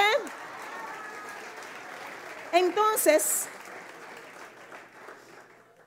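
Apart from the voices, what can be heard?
audience applause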